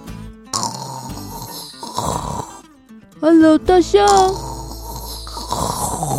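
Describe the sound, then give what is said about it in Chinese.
A voice speaks briefly, then a person imitates the snoring of an elephant asleep on a wooden boat in a story, with two loud, rumbling snorts carrying a wavering nasal tone, before speech resumes. “看来他睡着了。”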